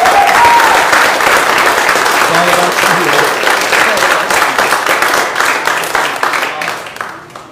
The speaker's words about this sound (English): Amen. Let's give you one more hand clap of praise.